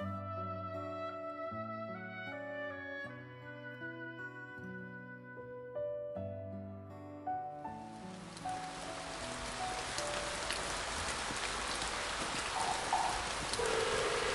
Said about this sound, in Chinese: 王兄，你听，这窗外可是在下雨， 是吧？